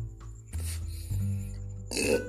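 A low, guttural burp rumbles up close with no talking around it, a drawn-out belch lasting a couple of seconds with a rougher swell near the end.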